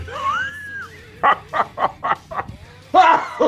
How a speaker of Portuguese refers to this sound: Porra, desculpa a tosse aí, cara. Sou doente, sou uma pessoa doente.